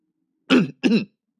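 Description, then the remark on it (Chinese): A forceful, throaty cough made of two quick, loud bursts in a row, harsh and raspy, sounding alone with no talking around it. “他心里一急，便用力的咳嗽了一声。”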